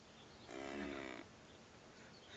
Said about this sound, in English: This is the cow.